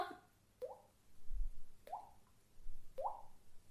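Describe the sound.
A voice imitates water dripping with mouth clicks: a few short, hollow plops spaced about a second apart, fairly soft, with a faint breathy sound at the start.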